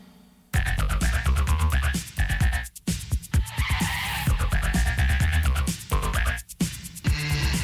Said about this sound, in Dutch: Oh, daar zie ik hem de parkeerplaats op rijden.